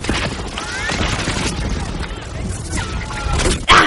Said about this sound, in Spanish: Eso que acabáis de oír es fuego de ametralladora.